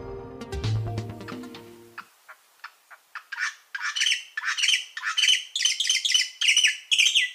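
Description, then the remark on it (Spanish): A mountain grackle, a critically endangered species about 30 cm long found only in Colombia's Eastern Cordillera, gives harsh, squawking calls, starting with a few sharp clicks after a brief low tone, then building into a rapid, repeated series of loud, rasping notes. “El changó de montaña que estamos escuchando es una especie que solo existe en la cordillera oriental de Colombia y se encuentra en peligro crítico de extinción.”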